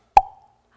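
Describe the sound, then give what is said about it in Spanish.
A single sharp pop of a cork being pulled, fairly loud, with a brief hollow ring that fades quickly into silence. “Queremos así como destapar. Ustedes han escuchado este sonido, ¿verdad?”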